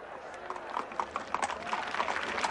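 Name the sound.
horse hooves clip-clopping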